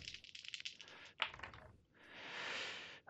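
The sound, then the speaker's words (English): Three twelve-sided dice clatter and rattle against a hard surface in quick, uneven bursts with a sharp knock midway, then a steadier rolling rumble before settling, during a tabletop role-playing game. Fairly loud, with no voices. “I rolled three 12s.”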